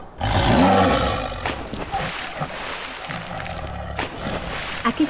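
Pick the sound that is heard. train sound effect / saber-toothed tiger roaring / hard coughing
saber-toothed tiger roaring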